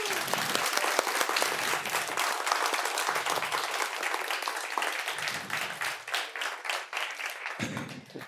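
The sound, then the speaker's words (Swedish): A live audience applauds steadily, thanking guest Göran Greider, dense clapping from many hands for several seconds, loud and sustained before tapering slightly near the end. “Eh, den här kommer ut på eh, Spotify om ni vill höra eh, oss igen eller, eller era applåder.”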